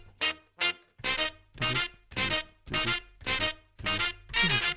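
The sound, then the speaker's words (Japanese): A steady run of about nine punchy, evenly spaced hits, the sound of finger drumming on sampler pads, played loud with no talking over it. “それ以外のこうフィンガードラムでねこう”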